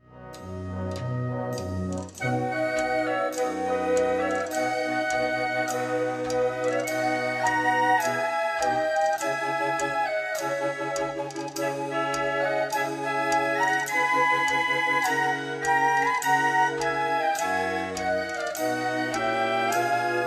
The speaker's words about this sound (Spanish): En primer lugar, la marcha está escrita para banda y ocarina, que es un instrumento de viento normalmente de cerámica muy curioso. Vamos a escuchar la parte de esta marcha en la que se introduce este instrumento.